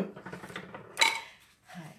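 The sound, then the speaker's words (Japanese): Dishes clatter and clink during washing up on a rainy morning: a run of light rattles, then one sharp, ringing clink of crockery, followed by a softer scrape and knock near the end. “今日はですね、なんか洗い物をしながら収録してみるというチャレンジです。”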